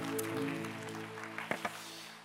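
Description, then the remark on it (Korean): An audience at the G2G Vision Worship Service claps in praise to God in a dense, steady patter over a sustained keyboard chord, with a couple of sharper, louder claps standing out near the end. “우리 하나님께 영광의 박수 올려드리도록 하시겠습니다.”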